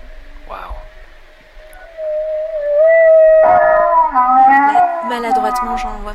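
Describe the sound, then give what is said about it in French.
Humpback whale pulsed sounds: rising, wavering moans with a buzzy pulsed texture swell in loudness and bend upward in pitch, heard clearly with no one talking. “Ah, ça, c'est du son pulsé, ça.”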